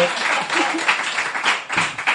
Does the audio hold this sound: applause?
yes